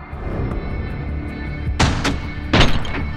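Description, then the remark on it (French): Several sharp gunshots crack out in a quick cluster in a town square, two close together and then a louder pair, over a steady low rumbling background with no voices. “Les tirs s'arrêtent.”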